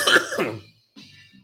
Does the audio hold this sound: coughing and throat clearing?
yes